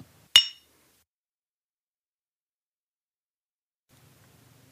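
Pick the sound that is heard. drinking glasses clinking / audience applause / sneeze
drinking glasses clinking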